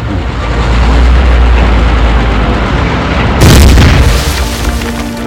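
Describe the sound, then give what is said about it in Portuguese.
Heavy, rumbling booms of British tanks and anti-tank guns firing roll on continuously, then a sharp, louder blast cracks out near the end amid dense battle noise, with no voices. “Tanques e canhões antitanques britânicos abriram fogo assim que os alemães entraram no raio de alcance.”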